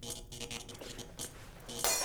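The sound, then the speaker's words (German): A light bulb shattering: scattered glassy clinks and tinkles build up, then a sudden loud, bright burst of breaking glass at the very end, with a brief exclamation from a voice. “Oh, die Glühbirne.”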